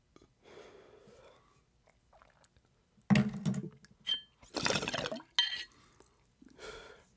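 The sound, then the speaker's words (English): A sharp flick of a lighter, then a few breathy, hissing drags and exhales, with quiet shuffling in between and no talking. “So we're gonna light one to that one.”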